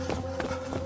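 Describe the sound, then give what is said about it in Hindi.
Quick running footsteps of pursuers, eight or ten dwarfs running behind someone fleeing toward the stairs, three hurried thuds in a steady rhythm, heard over a constant low hum with no talking. “मैं उन्हें देखते ही वहां से वापस सीढ़ियों की तरफ भागने लगा मुझे पीछे से उनके भी भागने की आवाज आ रही थी लेकिन मेरी इतनी हिम्मत नहीं थी कि मैं पीछे मुड़ के देख सकूं।”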